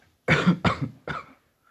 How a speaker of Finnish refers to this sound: Hengitä suun kautta. Syvempään. Yskäisepäs.